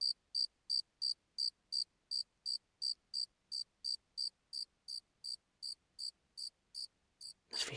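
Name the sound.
cricket chirping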